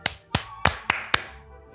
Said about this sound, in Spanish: Ok. nota para mí, tú aplaudiste después que yo.